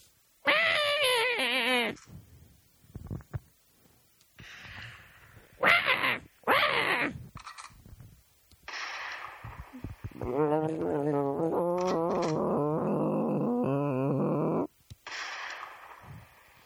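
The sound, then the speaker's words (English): Movie bird sound effects: shrill, warbling bird-like screeches in several loud bursts, wavering in pitch with a strained, cat-like yowling quality, separated by short pauses and ending in a long, sustained cry. “It sounded like some kind of mix between a bird and a dying child slash cat.”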